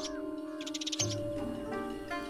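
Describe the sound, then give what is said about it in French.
A sparrow chirps in a quick burst of bright, high tweets, then gives a few softer whistling calls, all over a steady sustained musical backdrop. “Chaque jour, le moineau l'accompagnait dans la montagne, voltant gaiement autour de lui, se perchant sur son épaule et sifflant un air joyeux s'il avait du chagrin.”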